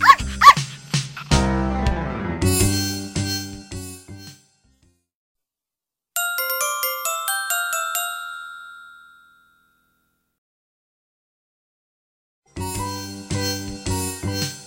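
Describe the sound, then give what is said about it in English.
A dog barks a few times in quick succession, loud, followed by a bright ringing chime that fades out, then more barking at the end. No one speaks. “Is it a dog egg? No, says dog.”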